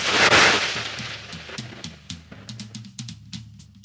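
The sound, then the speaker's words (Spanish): A sudden, loud thunder crack from a lightning strike hitting a dry tree branch bursts out at the start, followed by scattered sharp snaps and crackles that fade over a soft, steady tonal background. No one speaks. “Por suerte, en ese momento, un rayo cayó sobre la rama seca.”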